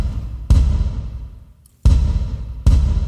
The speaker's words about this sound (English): So, don't judge me too harshly that this won't sound exactly the same. But if I put a big reverb on the kick drum, it sounds like this.